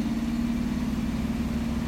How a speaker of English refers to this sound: The 1957 Buick turns over.